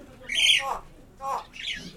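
A pet bird calls out three times in quick succession: bright, high, slightly squawky cries, the first longest, with brief quiet gaps between them and no people talking.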